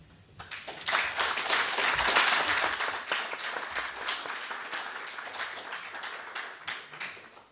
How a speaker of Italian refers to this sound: l'applauso era anche per Huntington, direi.